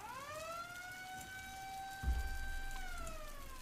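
A police siren wails loudly from two vehicles standing crosswise on the way at a bridge over a river. One long tone swells up, holds steady, then starts to drop, over a constant hiss like rain or traffic, with a dull low thump midway.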